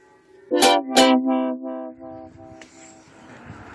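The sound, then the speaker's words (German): Church bells ring on a Sunday in a quick series of strikes, the first two loudest, each leaving a resonant hum that blends together and fades as outdoor background noise rises. “Ich lasse euch jetzt nochmal ein bisschen mit dem Glockenläuten allein. Könnt ihr das hören?”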